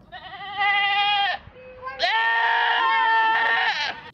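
A goat bleats twice, loud: a short wavering cry, then after a brief pause a longer, quavering bleat that carries on for about two seconds.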